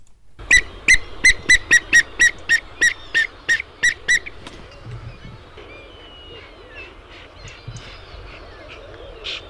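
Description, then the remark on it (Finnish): A bird-call whistle is blown to draw a response from a water rail, in a quick, even series of about ten loud, high-pitched toots. Then it stops, and faint bird twitters and soft outdoor background noise carry on. “Mä pillillä puhallan tässä, koska luhtakana reagoi usein siihen.”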